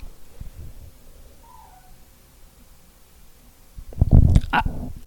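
A dog barks in the background: a short burst of two or three sharp, fairly loud barks near the end, after several seconds of quiet low rumble with no talking.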